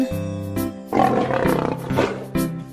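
A lion roars over a bright electronic tune, the growl swelling in the middle and holding for about a second and a half, loud and close, like a sound toy.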